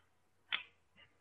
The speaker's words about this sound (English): Huh. I like the sound of that blackbird.